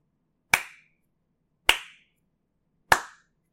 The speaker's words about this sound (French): La lumière de la salle s'éteint, le noir est total trois coups de bâton se font entendre.